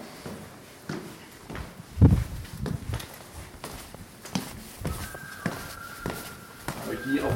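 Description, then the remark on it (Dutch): Footsteps descend the main stairs down to a square in a steady, irregular series of hard thuds, with voices talking and a faint steady tone entering partway through. “pakken de, de hoofdtrappen zo naar beneden naar het plein.”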